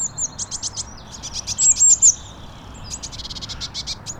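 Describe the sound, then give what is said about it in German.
Tits living in a tree chirp outdoors in the morning in quick repeated bursts of high, thin notes, with a brief whistled phrase in the middle, over a soft outdoor background hiss. “dann höre ich draußen Geräusche von Vögeln meistens und dabei höre ich dann meine normalen Meisen.”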